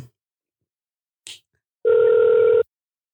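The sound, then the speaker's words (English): A phone call's ringback tone played through a soundboard from a phone connected by Bluetooth: one steady electronic beep lasting under a second, loud, preceded by a short click, with no voices. “I hooked my phone Bluetooth up to the soundboard and I'm going to try this call one more time, but I guarantee you it's not going to work.”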